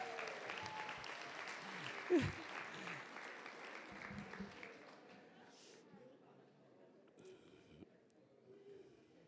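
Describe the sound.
An audience breaks into dense, crackling applause for God that holds steady for several seconds, then gradually thins and fades away, with a few voices calling out among the clapping.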